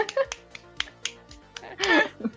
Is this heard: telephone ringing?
no